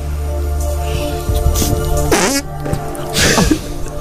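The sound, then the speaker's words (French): A wet, sputtering fake fart noise made by pressing skin against skin with the elbow, coming in a few squelchy bursts over a steady low hum, loud. “Le coude. Bravo, oh, putain bonne réponse.”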